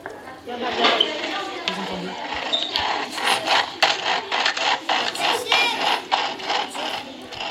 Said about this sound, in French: Et juste, donc les roulettes, c'était l'aspirateur. Pour enregistrer un bruit de roulette, on n'est pas obligé que ce soit des roulettes de valise.